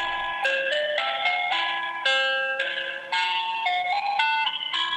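A tinny, electronic telephone hold melody plays alone, its bright, buzzy notes stepping up and down in a steady tune with a harsh, distorted edge and no talking.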